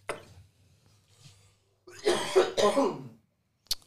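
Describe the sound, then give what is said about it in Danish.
A person coughs, two harsh, raspy bursts run together, followed by a brief sharp click and otherwise near silence. “Du må gerne lige advare, inden du skal hoste.”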